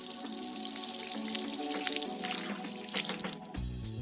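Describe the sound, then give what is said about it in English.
A steady stream of water sprays and splashes continuously for several seconds, a fairly loud hiss with faint musical tones underneath and a brief shift near the end, evoking Moisture Man, a superhero from Charles Yu's book Third Class Superhero, shooting water in a stream. “Moisture Man can take two gallons of water from the moisture in the air and shoot it in a stream or a gentle mist.”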